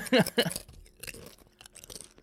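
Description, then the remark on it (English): Loud crunching of nacho chips that had been left out overnight on a counter: a couple of sharp bites up front, then quieter, irregular crunches as the chewing continues, with no one talking. “Oh, it's a good crunch.”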